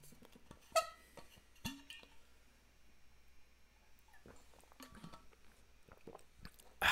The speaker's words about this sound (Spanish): Denme un segundo, tengo que tomar agua.